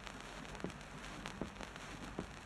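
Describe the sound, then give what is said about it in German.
Three artillery shots in a second salvo, evenly spaced dull booms about a second apart, heard over a steady crackling hiss with no voices; the shells fly forward and strike the opposite mountain wall. “Zweite Feuersalve.”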